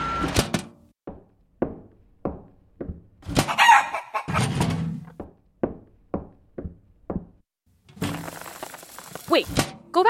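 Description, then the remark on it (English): A chicken, Benford's pet chicken Hildegard, clucks in a steady series of short, sharp bursts, breaking into a louder crow partway through, with a rougher, noisier stretch of squawking near the end. “I remember reading that Benford brought his pet chicken Hildegard with him on his first journey.”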